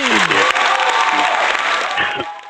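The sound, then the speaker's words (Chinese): An audience applauds to welcome a singer before a song. The clapping is a dense, continuous wash that stays loud for about two and a half seconds, with faint sustained musical tones beneath it. “好的，掌声欢迎。”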